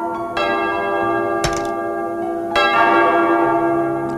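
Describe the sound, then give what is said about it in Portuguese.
A church bell rung by the sacristan rings out with about three strikes roughly a second apart, each leaving a long, shimmering metallic tone that overlaps the next. It is loud, with no voices. “Toca o sino, sacristão.”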